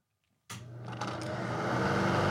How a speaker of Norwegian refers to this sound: Åh, er det, det er litt varmt her, så jeg skal bare sette på en vifte, og så setter vi i gang.